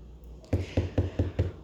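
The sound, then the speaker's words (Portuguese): Five evenly spaced knocks on a wooden door, moderately loud, with a low thud to each rap and no voices: a woman disguised as an old peddler knocks at the door of the dwarfs' house in the Snow White tale. “Atravessou as montanhas, onde moravam os anõezinhos, e bateu a porta.”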